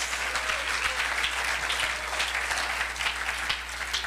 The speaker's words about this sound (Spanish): Ah, démosle un buen aplauso al Señor, gloria a Dios.